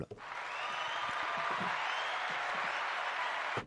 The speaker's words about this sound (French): Waouh, moi je suis fasciné par ce que fait ce, garçon, qui est donc là et que je salue et que j'applaudis.